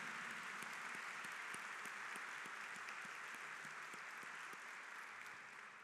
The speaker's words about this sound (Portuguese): Vamos acolhê-los com uma calorosa salve de palmas. Estão aqui conosco, hein?